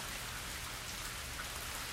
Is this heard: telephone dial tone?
no